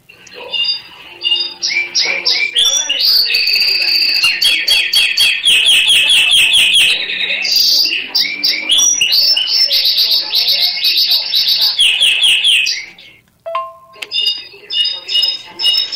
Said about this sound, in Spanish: por qué el clarín de mi madre canta como un jilguero